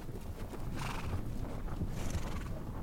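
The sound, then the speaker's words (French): A horse walks at a steady pace during a horseback ride, its hooves clip-clopping in a regular rhythm, with a soft wash of background noise and no talking. “Et donc on fait cette randonnée à cheval.”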